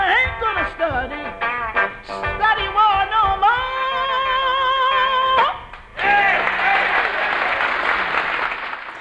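A sung gospel-style vocal with instruments holds a final note, then a dense wash of audience applause bursts in and continues steadily and loudly to the end.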